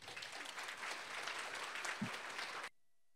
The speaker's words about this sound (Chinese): 给大家一个掌声。